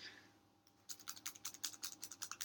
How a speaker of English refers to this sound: I rub my nails together like that all the time. Yeah. Um, I do do it when I have acrylics a lot. I can't stop. I like the sound of it.